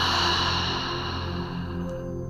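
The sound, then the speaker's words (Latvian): A person slowly exhales after briefly holding the breath, a long, loud, breathy exhale rushing out steadily, like ocean surf, fading slightly toward the end over a soft low hum. No one speaks. “tad mazliet aizturat elpu un tad lēni izelpa. Tāds tā kā okeāna skaņa, tāds.”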